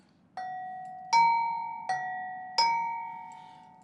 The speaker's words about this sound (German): Man kann Trambahnwagen auch an Glocken erkennen. Das war eine Glocke für einen Bahnübergang.